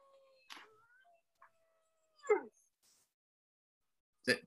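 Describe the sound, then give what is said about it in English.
A faint, thin wolf howl drifts in the background, a sustained wavering tone broken by a few short, sharp bursts of noise. “No, it's, it's it's my it's my wolf howl.”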